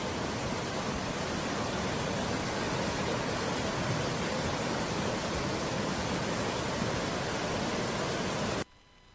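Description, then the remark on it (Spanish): A loud, steady roar of rushing water from a river in the municipality of San Gabriel that swelled suddenly, continuous with no voices, cutting off abruptly just before the end. “Eh, es, es, un río que se ensancha de la noche a la mañana, como podríamos decir, o de un instante a otro, mejor dicho.”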